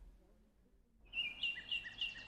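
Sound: birds singing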